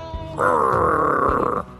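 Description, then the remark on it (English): A person lets out one loud, sustained, raspy growl lasting just over a second, rough and throaty with a steady mid-pitched buzz, then it cuts off. No words are spoken. “Just start with Orange Man bad and then growl”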